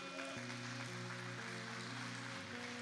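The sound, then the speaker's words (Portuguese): An audience applauds during a church service with steady, dense clapping under sustained keyboard chords that shift every half second or so. No one speaks. “Pode aplaudir que é para o Senhor, amém?”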